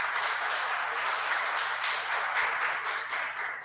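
Steady applause from an audience, a dense, continuous patter of many hands clapping at a fairly even level for a few seconds, with no voices over it.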